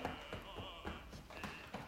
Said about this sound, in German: Jetzt geht es weiter mit dem Klopfen über die Leiste zur Innenseite des Beines. Einfach das Bein runter klopfen,